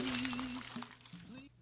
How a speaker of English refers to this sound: What was that? That's the sound of me folding it neatly and putting it back in its respected folder.